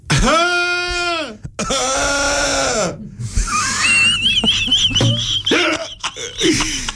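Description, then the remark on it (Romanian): Someone mimics the cough of a neighbour's goat: two long, wavering bleat-like calls, loud, then rougher wheezy sputters mixed with thin whistling noises. “deci încă o dată să încercăm tusea de capra vecinului.”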